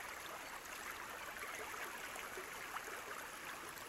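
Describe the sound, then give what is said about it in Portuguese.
A calm, shallow stream of crystal-clear water flows steadily beneath a bridge on a sunny day, its soft, continuous babble and trickle heard from slightly above, calm and even throughout. “Do alto da ponte, escutamos e admiramos a beleza do riacho e da paisagem”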